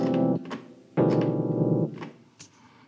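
Two loud, sustained chords of many clashing notes sounded together, the second ringing longer before both fade into a harsh, unresolved decay.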